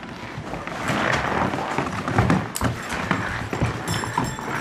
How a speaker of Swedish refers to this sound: det som vi gör nu är att vi går runt stallet och klättrar upp på stallets vind. Vadar lite genom snön här.